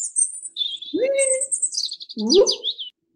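A bird chirps and warbles, with high, bright tweets and quick trills strung together, plus a couple of lower swooping whistles, heard clearly on its own with no talking.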